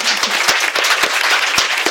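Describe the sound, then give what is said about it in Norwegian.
Applause from an audience for Norwegian teachers, a dense, steady wash of many hands clapping for about two seconds, with a few sharper individual claps standing out. No one speaks over it. “Så vi må jo liksom, vi må jo gi en applaus til eh, norske lærere, syns jeg.”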